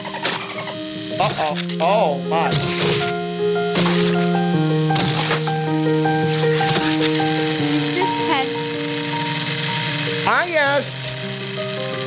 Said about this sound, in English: Who made the decision to use a blender sound effect? That is not what we asked the production crew.